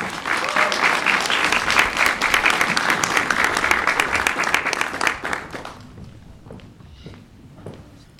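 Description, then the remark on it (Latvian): An audience claps steadily with dense, crackling applause for about six seconds to welcome the poet Gunta Ločmele, then the clapping thins out and fades to a few scattered claps and quiet background noise. “Sagaidām ar aplausīm.”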